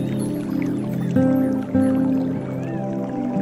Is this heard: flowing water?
yes